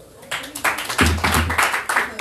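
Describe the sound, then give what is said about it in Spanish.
A short round of applause from a group, quick overlapping claps building after a brief pause and continuing steadily for about two seconds, with some voices mixed in. “Un aplauso.”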